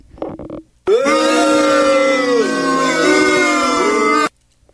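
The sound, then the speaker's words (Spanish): Booing called for against a song nominated as among the worst: a brief vocal burst, then a loud, sustained booing that holds a low, wavering groan for about three and a half seconds before cutting off abruptly. “Así que abucheos, por favor, para esa canción.”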